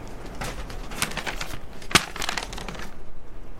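A paper bag holding seeds, handed over into someone's hand, rustles and crinkles in a steady run of crisp, papery bursts, with one sharper snap partway through. No one speaks.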